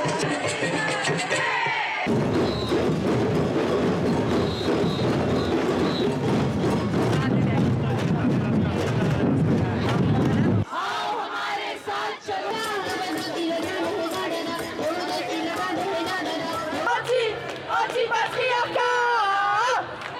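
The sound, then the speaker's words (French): A large outdoor crowd of thousands of women marching on 8 March for International Women's Day fills the scene with dense, continuous noise, many voices mingling and rising in chant-like bursts, with occasional cheers, loud throughout. “de milliers de femmes qui ont défilé mercredi dernier, 8 mars, à l'occasion de la Journée internationale des droits des femmes.”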